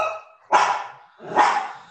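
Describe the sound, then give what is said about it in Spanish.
A dog barks twice, about a second apart, each bark loud with a sharp onset and a brief trailing tail. No one speaks. “Dile a tu perro que se cayó un rato. Es que quiere jugar.”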